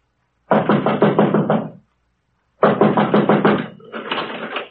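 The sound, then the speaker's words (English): Two loud bursts of rapid knocking on a locked wooden study door, each a quick run of about half a dozen raps, separated by a short pause, with no talking. “Door's locked.”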